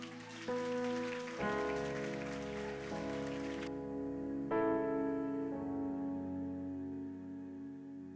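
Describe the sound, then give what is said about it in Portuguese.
A church audience applauds the Lord in a dense, steady patter over sustained keyboard chords; the applause fades out partway through while the music keeps playing. “Aplaude ao Senhor.”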